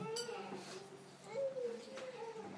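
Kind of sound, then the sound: human body sound, babies crying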